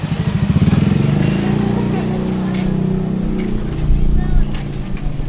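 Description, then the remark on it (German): Motorcycle engines drone and rev steadily on red sand roads in Burkina Faso, a continuous low rumble with shifting pitch as bikes pass, with faint street babble. “Heute brausen auch die burkinischen Frauen selbstbewusst über die roten Sandpisten.”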